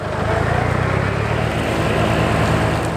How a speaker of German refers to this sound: Das ist jetzt gerade so eine Situation, er tut jetzt der Bauer mit dem äh, Mulchgerät tut ihr die Bankette abmähen. Ein grosser Traktor fährt am Feldweg entlang. Er mäht links und rechts davon die Grasstreifen, die es dort hat.